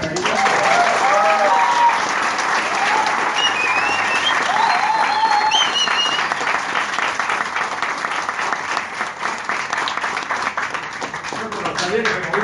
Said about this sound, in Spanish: Muchas gracias. ese aplauso muy pobre, ¿eh? Fuerte aplauso.